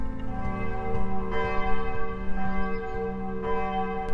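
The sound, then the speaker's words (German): The bells of St. Moritz church ring out over the town in a full, overlapping peal, rich sustained tones layering over one another with fresh strikes every second or so, loud and steady throughout with no voices. “Die Glocken der St. Moritz-Kirche gehören zweifellos dazu.”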